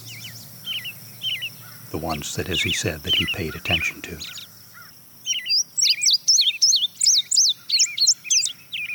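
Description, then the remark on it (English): A field sparrow's song rings out as a clear series of repeated, down-slurred whistles running together into a steady trill, loud, after a brief stretch of a man talking. “That trill is the field sparrow? That's the field sparrow.”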